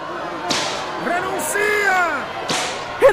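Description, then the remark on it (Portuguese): Two sharp whip cracks snap about two seconds apart, each a bright swishing lash, as a soldier threatens two captives with a whip at a Roman circus, with strained voices crying out in the background between them. “Junto a eles, incitado pela massa furiosa, um impiedoso soldado imperial os ameaça com chicote.”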